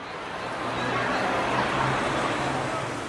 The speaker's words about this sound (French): Hum, j'entends le bruit de la ville, de la foule. Tends bien l'oreille. Est-ce que tu n'entends pas autre chose